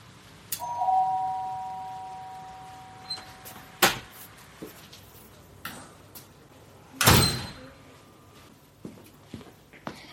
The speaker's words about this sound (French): Jusqu'au jour où une petite fille sonne à la porte du théâtre du Grand Bleu.